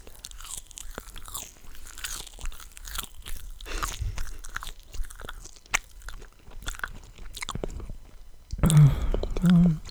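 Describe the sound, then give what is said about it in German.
Wet, crunchy chewing clicks and smacks repeat irregularly for several seconds, then a low voiced groan rises twice as the food is swallowed, louder than the chewing before it. “Warum stöhne ich immer, wenn ich schluck?”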